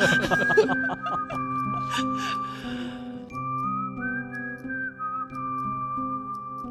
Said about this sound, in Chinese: 但这口哨声有点恐怖片儿的感觉。 对我们，所以就是想有一种诡秘的那种 嗯 感觉。